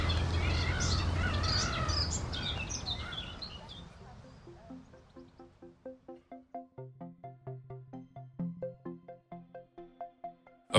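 Birds chirp and trill busily over a low outdoor rumble for the first few seconds, then fade as a steady, rhythmic sequence of bright pitched tones, like a chiming melody, takes over.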